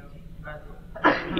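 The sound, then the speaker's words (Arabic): A single sharp sneeze bursts out suddenly near the end, loud, following a quiet stretch with faint murmuring voices in the background. “يرحمك الله”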